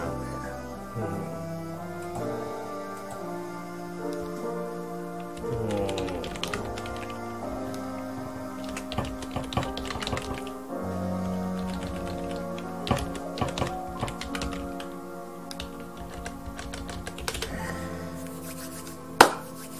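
Irregular, uneven bursts of computer keyboard typing by a home-based worker preparing documents, clicking under a steady melodic music backdrop, with one sharper key strike near the end and no talking.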